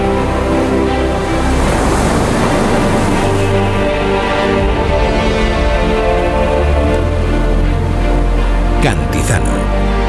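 Mediterranean Sea waves wash continuously and loudly for the full stretch, a dense rolling surf noise with a steady tonal drone underneath and a brief brighter splash near the end.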